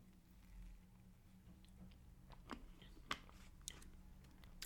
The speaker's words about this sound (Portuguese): Deixa-me só me dar aqui um golinho de água.